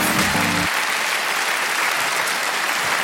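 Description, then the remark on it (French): A crowd at the Montreux Comédie applauds steadily to welcome the next comedy act, Poulpe et Bérangère Crier, a dense wash of clapping with some cheering mixed in, sustained throughout after a brief tonal sting at the very start. “Préparez-vous maintenant à accueillir notre prochain artiste et faites du bruit, où que vous soyez, pour Poulpe et Bérangère Crier.”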